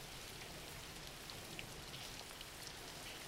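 Steady rain falling in a continuous, even hiss, with faint scattered drops pattering on a surface. Soft overall and unbroken, with no voices.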